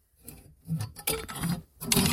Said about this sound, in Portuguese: mas e que barulho é este? É cruzetas. Porquê? Porque eu vi na net, pá, que gravar dentro de armários faz com que o áudio seja melhor.